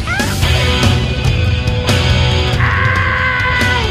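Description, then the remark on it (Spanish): A crowd of people shouts together on request, loud, a dense, sustained roar of voices that carries through the whole few seconds with a few higher cries rising above it. “¡Otro grito!”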